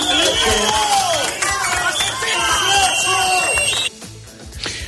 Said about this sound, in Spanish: Abucheos y gritos de asesino, dimisión, la gente recuerda a los dos guardias civiles asesinados en Barbate arrollados por la narcolancha.